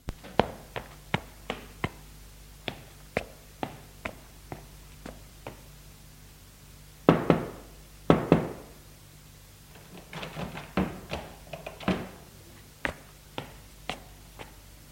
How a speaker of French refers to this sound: Florian frappe à la porte de la chambre de sa fille.